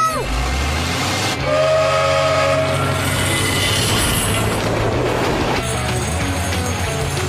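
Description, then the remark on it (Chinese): An approaching train rumbles loudly and steadily throughout, and a brief, tonal whistle sounds over it near the start. The roar continues without a break and grows slightly brighter toward the end. “猪猪做得好，火车就要到了，快点，小丽！”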